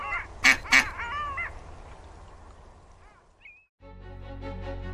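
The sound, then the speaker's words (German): Ducks quack loudly, a quick burst of harsh calls followed by a few softer nasal quacks, then the calls fade out before a steady, low background begins. The ducks are being fed bread. “Noch ein Stück Brot für die Enten, Frau Esels?”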